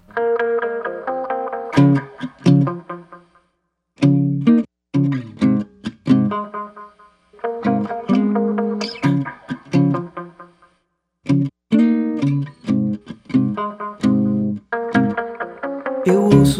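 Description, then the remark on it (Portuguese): A duet song recorded on an album plays clearly, with a sung vocal carried over steady instrumental accompaniment, the phrases pausing briefly every few seconds before the melody picks back up. “Eu separei para a gente ouvir agora uma parceria”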